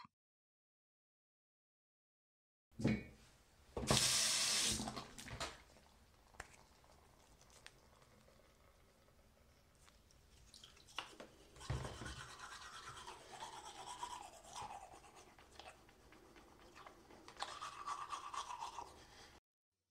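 After a brief silence, a sharp gush of tap water starts, followed by wet, rhythmic toothbrush scrubbing over a steady hiss of running water, with occasional louder scrapes and swishes, as someone brushes their teeth before going to bed.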